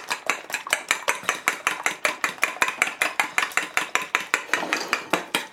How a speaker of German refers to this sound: Ja, das alles nochmal schön durchrühren. Genau, da kriegen wir da was Schönes hin.